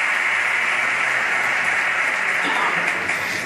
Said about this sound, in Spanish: Y ahí la ovación después de esa referencia a su nieto Julio.